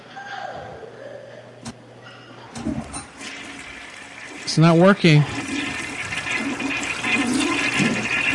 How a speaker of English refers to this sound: Well, every time I flush the toilet, there's more water.